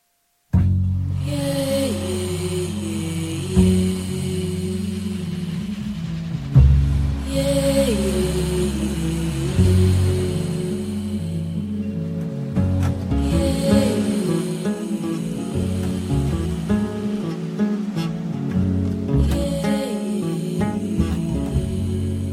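Music opens an Afro-Brazilian devotional song to Oxum, with sustained melodic tones over a steady, pulsing low rhythm, played loud for about twenty seconds without any talking.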